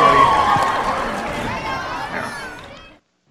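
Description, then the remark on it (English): A burst of crowd applause sound effect mixed with cheering and excited voices, loud from the start, then fading out smoothly over about three seconds before cutting to silence. “We'll, we'll give you the applause anyway.”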